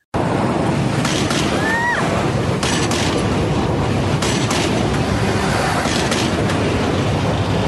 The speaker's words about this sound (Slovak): Dnes je znova plne funkčný a do výšky 40 metrov nad zemou sa dá aj vyliesť, no treba si dať pozor na prechádzajúce vlaky.